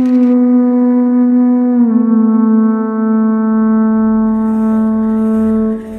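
A conch shell trumpet is blown toward the four directions from a platform in the middle of a plaza, in one long, loud, steady blast. Its rich, horn-like tone holds for several seconds with a slight dip in pitch partway through, and no one speaks.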